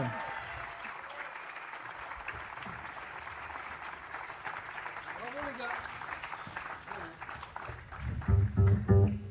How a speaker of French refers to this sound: Et on recueille, s'il vous plaît, sous un tonnerre de cris d'applaudissements, Monsieur ….